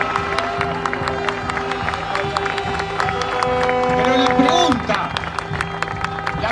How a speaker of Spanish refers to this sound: que estamos haciendo este acto masivo aquí, se ha reproducido en todos los departamentos del interior, en todas las localidades de nuestro país y por supuesto que vaya un fuerte aplauso para todos esos trabajadores y trabajadoras de todo el país.